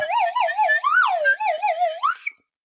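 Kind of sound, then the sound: sound effect, slide whistle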